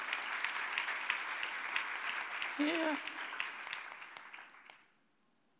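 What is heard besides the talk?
applause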